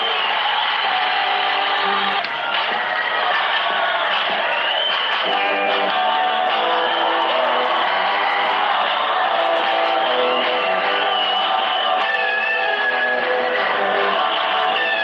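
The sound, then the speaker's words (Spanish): A large concert crowd cheers and applauds loudly and steadily, a dense wall of clapping with scattered shouts and whoops rising out of it, never letting up. “Y público, mientras aplaudimos la bandera argentina de Isla Lizarazu.”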